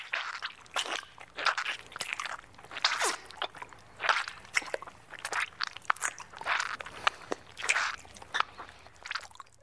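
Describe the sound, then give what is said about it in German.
Wet squishing and smacking noises repeat in an uneven rhythm, with moist bursts and clicks over a low hum, sticky, slippery sounds recorded in 1995 by an artist with contact microphones inserted vaginally to capture the sounds of her intimate area. No one speaks. “1995 hat sich die Künstlerin Kontaktmikrofone vaginal eingeführt, um die Klänge ihres Intimbereichs aufzuzeichnen.”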